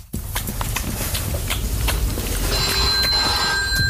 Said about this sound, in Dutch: Oh, de telefoon gaat.